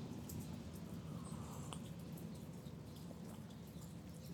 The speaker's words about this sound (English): So, as you might be able to tell, I'm in another one of my favorite spots my front porch. We are watching the rains gently fall, and you can hear the traffic go by.